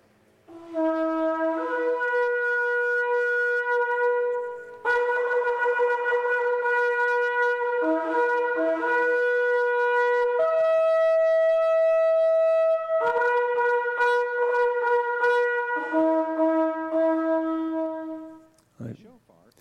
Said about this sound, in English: And as they walked around the wall, there was only one sound, and that was the sound of the, of the cho- chauffeur, shofar, the shofar blowing.